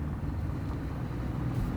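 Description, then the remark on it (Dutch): Steady low rumble of a Citroën C0 electric test car packed with new chips, driving laps on the grounds of the High Tech Campus in Eindhoven, heard from inside the cabin, with a constant hum and road noise and no voices. “Nou, dit is in wezen een gewone elektrische auto.”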